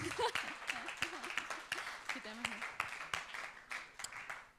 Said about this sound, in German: ihr könnt ja auch schon direkt Applaus geben.